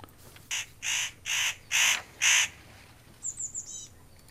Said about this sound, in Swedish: Jo, det var det här krr, krr, krr lätet som avsågs. Ja. Jo, det är mycket kännbart när man har lärt sig känna igen det. Det är nötkråka.